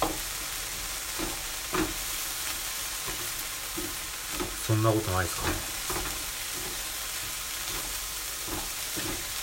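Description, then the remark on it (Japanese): One whole onion sizzles steadily in a frying pan as it is stir-fried to drive off moisture until amber-brown, a constant hissing crackle broken by a few louder scraping bursts of stirring near the middle. A voice speaks briefly at the start. “はい結構な量ですねこれ玉ねぎ1個ね玉ねぎ丸々1個使うとかなりまあそこそこの量ですねでこれをですねこうフライパンで今炒めておりましてで水分を飛ばしつつですねこれがあのー、何でしたっけ飴色茶色っぽくなるぐらいまで、えー、炒めて炒めていきます”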